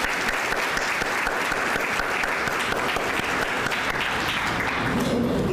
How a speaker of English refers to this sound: And for that, we thank you and applaud you. Thank you so much.